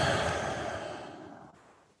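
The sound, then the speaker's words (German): A single long, deep, relaxed breath out by a person touching their neck with a hand while relaxing, airy, gradually fading over about two seconds with no talking. “Jetzt kommt ein Atmen rein.”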